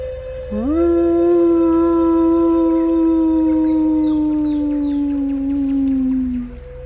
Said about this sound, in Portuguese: Ela voltou de seus pensamentos com o um uivo do lobo.